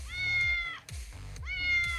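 Two loud cat meows, each drawn out and rising then falling in pitch, separated by a short pause, over a low, rhythmic thumping background.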